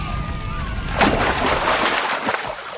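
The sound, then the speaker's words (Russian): A sudden, loud splash as a bucket of water kept under a bar counter is thrown out all at once, followed by a couple of seconds of sloshing and spattering as it settles. “Хорошо, что я припрятала ведро воды под стойкой на этот случай.”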